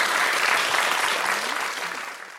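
A studio audience applauds steadily throughout, a dense wash of clapping hands at fairly loud level that slowly tapers toward the end, with no speech over it.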